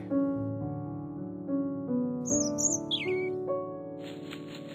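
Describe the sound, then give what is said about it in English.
A few quick, high bird chirps in a park rise briefly over soft, sustained background music, followed by a short burst of fluttering, rustling noise as a bird flies away. “A bird flew away.”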